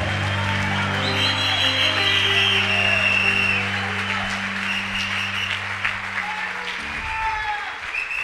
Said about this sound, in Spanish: Fuerte ese aplauso.